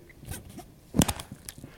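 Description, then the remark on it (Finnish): A large plastic cap is twisted open, giving short scratchy creaks and a louder crackling grind partway through, then a few softer ticks. No one speaks. “Mä avaan nyt tämän ison muovisen korkin.”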